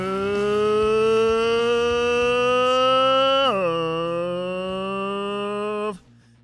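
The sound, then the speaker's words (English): A voice imitates the loud engines of cars driving around Nashville late at night, a sustained, buzzing drone that slowly climbs in pitch, drops once as if shifting gear, then cuts off after about six seconds. “had to sound like some of these cars driving around Nashville late at night.”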